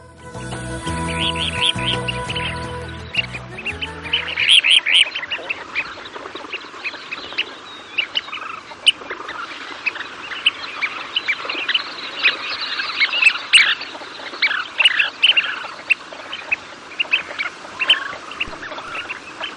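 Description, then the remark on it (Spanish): Kentish plover calls, the bird named Bird of the Year 2019 by SEO, a busy stream of short, sharp peeping notes repeated rapidly and overlapping, after a brief musical passage at the start. “Chorlitejo patinegro (Ave del año 2019)”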